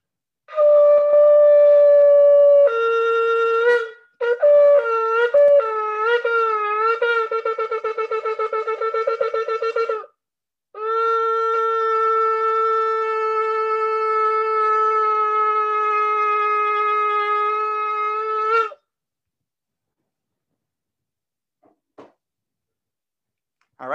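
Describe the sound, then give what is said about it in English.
Loud, raw horn blasts from a shofar, blown in the month leading up to Rosh Hashanah: a sustained call, then a run of short wavering bursts, and finally one long steady note held for about eight seconds before silence. “So I'll do a couple of the shofar blasts, and then we'll share some, God willing, some Rosh Hashanah inspiration.”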